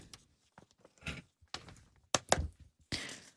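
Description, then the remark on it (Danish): A door is opened and shut as a man walks out through it, with a few soft clicks and thumps from the handle and latch, then a firmer knock as it closes, amid quiet. “han går nu ud af døren.”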